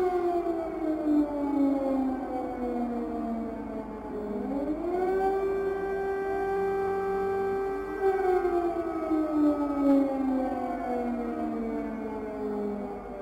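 An air raid siren wails steadily, its pitch sweeping slowly down and then rising again to a sustained tone before falling once more, loud and alone with no voices.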